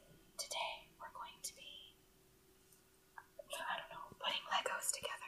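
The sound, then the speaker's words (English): Soft, breathy whispering close to the microphone, with sibilant hisses and crisp mouth sounds in short bursts separated by a brief pause, quiet and intimate in the style of ASMR. “I'm doing an ASMR. You're ruining the vibe.”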